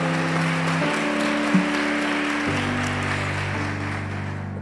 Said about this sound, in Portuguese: Ah, pode aplaudir o Senhor.